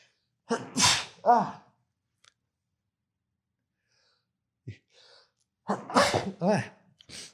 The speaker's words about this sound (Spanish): Ay, tengo que estornudar.